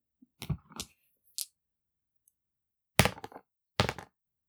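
Dice are rolled to see who goes first, rattling and clattering across a hard surface in short bursts: a few scattered clicks first, then two sharper tumbling rolls, with quiet gaps between and no talking.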